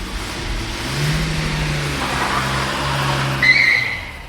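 car driving away

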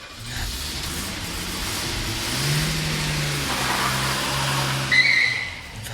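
car driving away

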